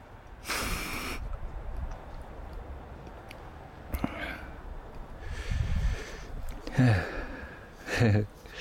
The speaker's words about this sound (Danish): Altså, man sniffer simpelthen bare tobak, ren tobak op i næsen?